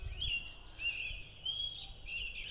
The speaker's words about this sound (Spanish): Son las 6 de la mañana y ya los pajaritos están empezando a cantar, a elevar su trino a nuestro Dios, reconociendo en Él su bondad maravillosa de la vida. Qué rico escucharlo, qué rico levantarse temprano. Y cómo canta.